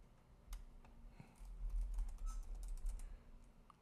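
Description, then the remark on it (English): Rapid typing on a computer keyboard with irregular clicking keystrokes, fairly quiet, over a low rumbling hum in the background. No one speaks. “I'm ty- I'm typing some shit at the same time.”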